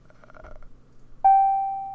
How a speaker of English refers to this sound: Hit the bing, Tony. Get that bell.